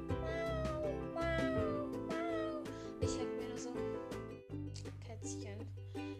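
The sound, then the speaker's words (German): A pet cat meows repeatedly with drawn-out, rising and falling cries, fairly loud, over a steady busy background hum. “Also sie miaut echt oft.”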